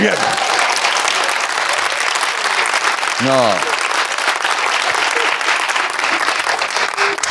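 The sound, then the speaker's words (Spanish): Loud, dense applause from a crowd, sustained and steady for the whole stretch, with a brief voice speaking over it partway through. “No aplaudan, ¿eh? No aplaudan, por favor.”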